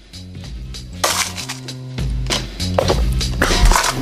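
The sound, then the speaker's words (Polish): A glass Japanese marble soda bottle, with a glass marble inside, pops open with a sharp burst, followed by fizzing hiss and clinking glass, repeated in short bursts over steady background music, fairly loud. “tak, tak jakby nazywana w Japonii marble soda.”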